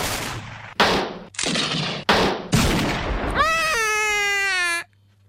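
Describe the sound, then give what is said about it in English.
Several loud, harsh bursts of gunfire in quick succession, each a short blast of noise, followed by a sustained high wailing tone that holds steady before cutting off abruptly. “Come on, guys, or this gunfire must have attracted attention.”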